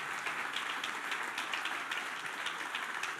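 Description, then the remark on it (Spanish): An audience bursts into sustained applause for the women present, a dense, steady wash of many hands clapping at once with no pauses, filling the whole stretch without any voices on top. “Hombres, hombres, den un fuerte aplauso a esas mujeres.”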